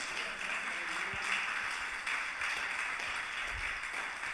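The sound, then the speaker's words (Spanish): An audience claps together to applaud God, a dense, steady wash of many hands that holds at an even loudness for several seconds, with no voices over it. “Apláudele si quiere aplaudirle.”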